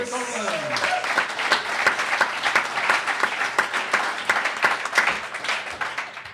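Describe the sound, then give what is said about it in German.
An audience applauds a volunteer chosen from the crowd, steadily for several seconds, dense overlapping claps at an even, lively level, with a brief voice audible at the very start. “Applaus.”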